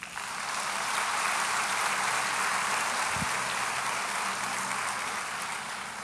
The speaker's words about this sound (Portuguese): Não é que vai valer, já valeu a pena. Aplauda Jesus.